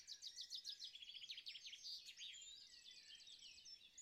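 Birds sing steadily with rapid, repeated high chirps and twittering trills that overlap throughout, fairly soft, with no voices present.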